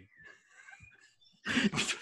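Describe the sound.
A person mimics a cat: a thin, whiny, wavering tone, then a short loud burst of breathy hissing noise at the end, with no other talking.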